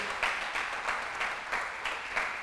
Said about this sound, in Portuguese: Dá um aplauso aí.